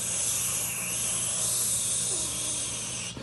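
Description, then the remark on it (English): Rain coming down in sheets hisses and fizzles on dark volcanic rock littering the ground in a steady, dense, high-pitched wash that barely changes for about three seconds, with a faint low hum beneath and no voices. “Each raindrop thus contributing to a cacophonic hiss.”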